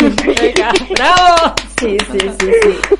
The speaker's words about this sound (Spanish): voy a aplaudir, puedo aplaudir. Yo creo que sí.